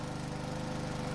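A lawn mower engine runs at a steady, even drone with a buzzing, harmonic hum. It stays fairly loud throughout, with no voices.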